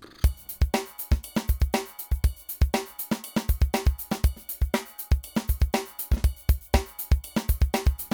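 A punchy drum beat plays on its own, with deep kick hits and sharp snare and cymbal strikes repeating in a steady, driving rhythm for several seconds.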